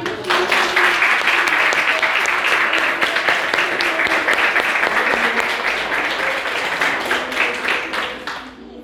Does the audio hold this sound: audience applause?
yes